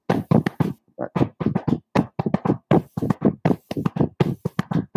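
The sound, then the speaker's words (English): A three-against-two polyrhythm tapped by hand: crisp, knocking taps in two interlocking pulses, falling into a steady, lopsided repeating pattern over about five seconds with no talking. “it's two pulses one of two one of three going at the same time”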